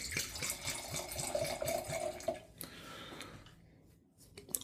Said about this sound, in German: Dann würde ich sagen, wir schenken uns den mal ein ins linke Glas.